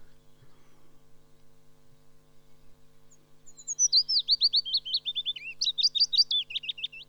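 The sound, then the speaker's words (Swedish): A willow warbler sings a clear, high phrase of sweeping notes that slides gently downward, starting partway through over a steady low electrical hum, distinct. “Man ligger på badplatsen kan man höra lövsångare.”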